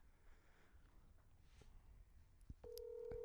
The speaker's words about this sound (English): Go ahead and call them. Make sure it's on speaker. Oh, there you go. Should I hold it up to the mic? Or Hold it up to the mic. Okay.